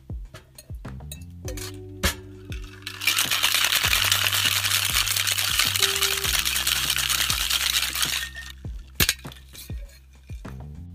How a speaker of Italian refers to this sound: Aggiungiamo il ghiaccio e iniziamo a shakerare.